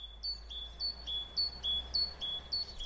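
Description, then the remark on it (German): High, thin calls of a blue tit and great tit repeat in quick two-note phrases, roughly twice a second, clear over a low background hum with no talking. “Da ist der Hausrotschwanz dabei, die Blaumeise und die Kohlmeise”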